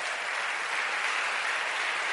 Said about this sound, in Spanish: Le damos un aplauso fuerte al Señor.